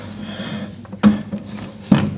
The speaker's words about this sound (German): Wir tasten schon mal den Tisch ab. Ist der rund oder eckig? Wo hört er auf?